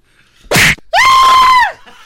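woman screaming

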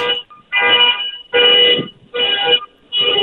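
alarm sounding

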